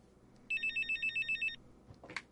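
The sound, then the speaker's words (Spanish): A mobile phone rings in an office where its owner sits at a computer, a rapid, pulsing electronic trill, about nine quick beeps in one burst lasting a second, followed by a brief rustle as it stops. “Mira el número entrante en su móvil.”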